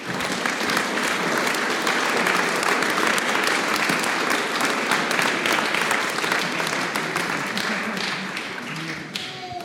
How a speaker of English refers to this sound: Amen. Amen. We can clap again. Let's clap again.